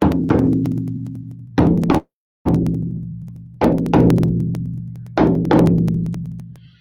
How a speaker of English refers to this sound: So really, this this shamanic drum, it's not just a tool